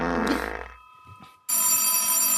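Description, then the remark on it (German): A loud, harsh telephone bell rings in two bursts: the first fades out, then a brief pause with faint low rumbling, and a second bright, sustained ring starts abruptly. “Moment, ich muss mal eben ans Telefon.”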